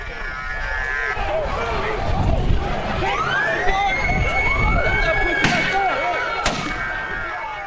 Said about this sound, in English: there are young folks who are getting really, really tense um, because because there are rubber bullets uh, being fired into the crowd.